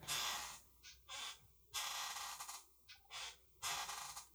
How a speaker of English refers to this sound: That's my chair. And the reason I bring this up is because in the old episodes, I would always complain about my chair. Uh, it was always squeaking and rattly. It sounded exactly like this one and it just became kind of a, a constant thing.